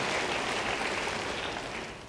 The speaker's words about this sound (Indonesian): Beri tepuk tangan bagi Tuhan.